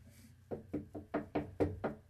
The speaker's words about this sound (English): Hold on. There's someone knocking at the door. Let me go answer that real quick.